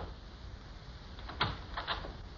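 A few muffled knocks on a door, one thud followed by a quick cluster of raps, faint and somewhat distant against a quiet background hiss.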